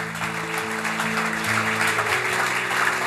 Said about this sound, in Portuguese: Dá um glória a Deus. Pode aplaudir, se é para Jesus, aplauda.